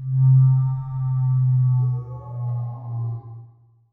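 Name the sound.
foghorn blast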